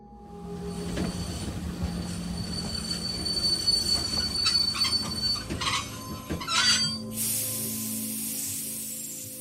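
A train rolls into a station, its wheels squealing in sustained high-pitched screeches over a low rumbling of carriages, ending with a loud hissing burst of air brakes. No one speaks.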